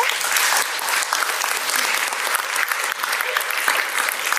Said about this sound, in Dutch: Mag ik een warm applaus